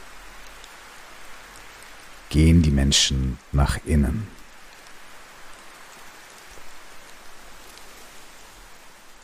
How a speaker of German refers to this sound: wenn an einem warmen Sommertag die ersten Tropfen eines Regens beginnen zu fallen,